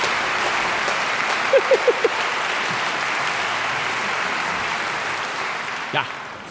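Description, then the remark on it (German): An audience applauds steadily for several seconds for Alex Nolden, who operated the Big Ben, a dense, even wash of clapping at moderate volume, with a few quick whoops or whistles early on and a brief shout near the end. “Ich würde gerne noch einen ganz speziellen Applaus einfordern für Alex Nolden, der da hinten den Big Ben bedient hat, meine Damen und Herren.”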